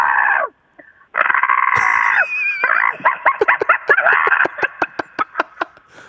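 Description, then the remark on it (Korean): A radio show caller on the phone from a parked car imitates a crow with a harsh caw, holding long raspy calls at first, then breaking into a run of short, rapid caws that grow choppier toward the end, loud with no other talk. “자 준비되셨죠? 까마귀 들어볼게요.”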